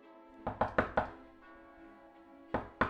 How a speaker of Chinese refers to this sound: 门外有轻轻的敲门声